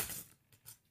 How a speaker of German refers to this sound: Das war mein Handy. Ei, hast du den, den Flaschenöffner äh, aufs Handy fallen lassen? Ja.